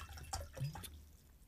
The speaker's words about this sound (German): das war Wasser, Entschuldigung.